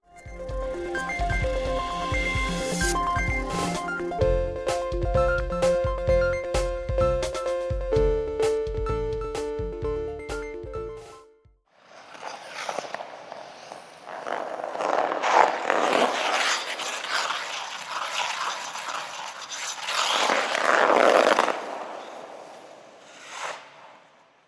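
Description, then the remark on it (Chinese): A short musical passage plays, then gives way to continuous skate blades scraping and hissing across the ice of an ice rink, a rough, noisy swishing that swells in louder strokes with no one speaking. “这就是在溜冰场溜冰的声音哦。”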